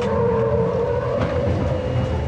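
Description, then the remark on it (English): A Humvee driven hard in a handling test at under 30 miles an hour, with bars fitted to stop it tipping over; its engine gives a loud, steady roar with a droning tone and rough tire noise throughout, with no voices. “Most Humvees do not have anti lock brakes or electronic stability control that prevent rollovers.”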